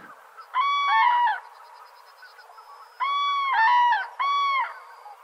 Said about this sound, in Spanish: cuando llegan las grullas del norte de Europa para pasar los meses de más frío